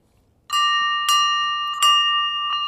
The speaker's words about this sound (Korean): 음, 종소리입니다. 네, 맑은 종소리.